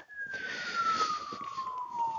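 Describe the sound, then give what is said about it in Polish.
An ambulance siren wails steadily as it passes, its pitch sliding gradually lower while it moves away, fairly loud above a hiss of traffic. “No, może tam jedzie właśnie karetka po jakiegoś palacza nałogowego, który, któremu zdrowie już nie wytrzymało.”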